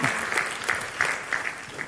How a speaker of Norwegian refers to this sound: Tusen hjertelig takk. La oss gi dem en klapp. Fantastisk bra.